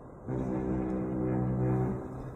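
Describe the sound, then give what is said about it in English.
A sludge tanker's horn gives one long, low blast of nearly two seconds, steady and rich in harmonics, then fades into a faint background rumble. No one speaks. “Well, that was the sludge tanker over there, but there you go.”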